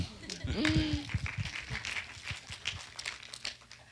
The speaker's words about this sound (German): Einen herzlichen Applaus für meine wunderbare Frau.